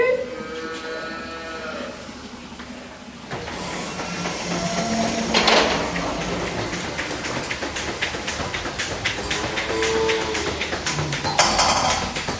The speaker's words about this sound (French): Il y a des pulsateurs, c'est pour faire en fait le même mouvement que si on faisait à la main. D'accord. En fait, ça aspire pas en continu, ça fait des pulsations, ça masse la vache pour tirer